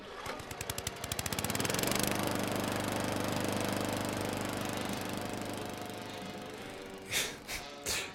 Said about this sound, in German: So, ich fahre jetzt eine Runde auf meinem Rasenmäher. Wiedersehen!